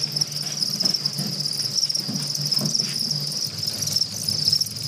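A dense, continuous chorus of house crickets (Acheta domesticus), raised as a protein source, chirping in a manual breeding system of a large box fitted with egg cartons; a steady high-pitched trill with overlapping pulses, even in loudness, with a faint low hum underneath and no talking.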